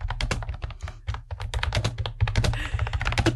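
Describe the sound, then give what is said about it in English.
Rapid, clacky keystrokes on a new computer keyboard received for Christmas, typing an email, a dense run of sharp taps with a steady low hum underneath and no talking. “Everyone want to hear my clacky keyboard?”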